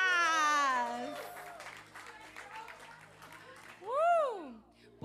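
A short round of applause, a burst of scattered clapping mixed with high, sliding cheers or squeals from a small group, fading before one final rising-and-falling whoop.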